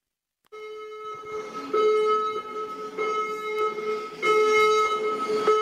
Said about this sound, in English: That was the gym. Fire alarm. The fire alarm was going off at the gym.